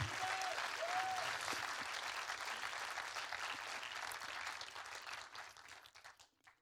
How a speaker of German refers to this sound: Lass uns mal Jesus dafür einen Applaus geben, weil das ist einfach Wahrheit. Amen.